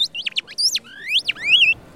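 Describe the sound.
A bird-call whistle imitating a nightingale: a burst of quick, high chirps, then longer swooping and warbling whistled notes, clear and fairly loud, with no talking.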